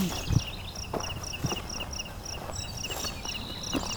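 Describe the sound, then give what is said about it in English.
Crickets chirp steadily in rapid, evenly spaced pulses in a meadow at the south end of Beverly Swamp, a high shrill trill over an open outdoor backdrop, with a few soft low thumps like footsteps. “We're in a meadow here in the south end of Beverly Swamp. Lots of crickets here too.”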